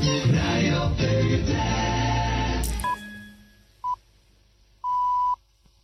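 A radio frequency switching between stations in the Netherlands, the moment one station leaves the frequency and Sky Radio begins on 100.7 FM: loud music cuts off abruptly, leaving near silence broken by three steady electronic beeps, two short and one longer.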